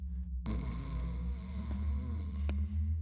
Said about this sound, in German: Der Söldner gähnte herzhaft und sank dann zu Boden, wo er schnarchend liegen blieb.